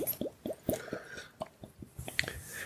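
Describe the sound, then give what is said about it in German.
Astra beer is poured into a glass, with a run of irregular wet glugs and splashes and a faint fizzy hiss. No one speaks. “Aber ich könnte es mir mein Glas einschenken, dann fühlt es sich vielleicht schon mal besser an.”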